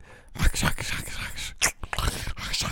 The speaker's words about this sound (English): and if I don't, then you're just gonna have to listen to the sounds of my dog chewing in the background. That's gonna be some like ASMR I put on like OnlyFans or something.